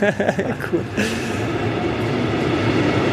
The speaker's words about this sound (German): Der, der nächste Zug.